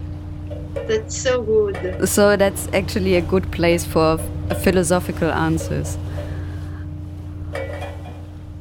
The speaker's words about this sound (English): We are on the Atlantic Ocean. That where is where I want to go now. Oh, this is the sound of the boat.